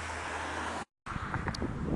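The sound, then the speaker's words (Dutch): Steady roar of street traffic with many cars rushing by while someone waits to cross the street, mixed with wind buffeting the microphone; the sound cuts out briefly, then the passing traffic resumes, loud and continuous. “nou moet ik heel even wachten, want er komen nu echt allemaal auto's voorbij.”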